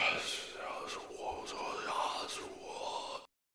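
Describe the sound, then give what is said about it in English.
Breathy, hissing whispers murmur continuously for about three seconds, airy and unintelligible, with soft sibilant bursts rising and falling before cutting off abruptly into silence, heard while crossing a skywalk toward a convention center. “you notice that you also start hearing some whispering sounds.”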